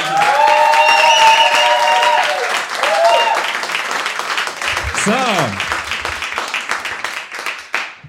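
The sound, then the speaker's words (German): A live audience at an afterwork event bursts into loud, sustained applause mixed with high-pitched cheers and whoops, showing how loud it can be, one sliding shout rising above the dense clapping before the noise gradually thins toward the end. “Zeigt mal, wie laut ihr heute sein könnt.”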